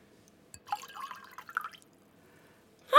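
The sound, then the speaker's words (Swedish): Warm water pours for about a second in a bright, gurgling trickle, then stops, with a sudden splash or clink at the very end. Fairly quiet, no talking. “Jag hörde att det var varmt.”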